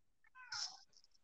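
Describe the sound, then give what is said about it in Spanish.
A single short meow from Lupe, a female domestic cat, rising and fading within about half a second. It is fairly quiet, with a faint breathy tail afterward and no talking. “Está mi gata molestando aquí.”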